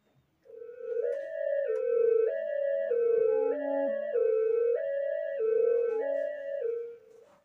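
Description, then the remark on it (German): A loud electronic alarm tone, set off by opening a cabinet, alternating between two pitches in a steady, repeating high-low pattern, sounding continuously for several seconds with no voices. “Ein paar davon muss er so schnell wieder zuziehen, damit er sich diesen nervigen Alarmton”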